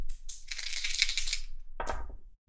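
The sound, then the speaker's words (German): A pair of six-sided dice rattles and clatters across a hard surface for over a second, then a brief second clatter follows as they settle. Fairly loud, with no voices. “Das ist auch Transit und ab jetzt immer mit zwei Sechsseitenwürfeln.”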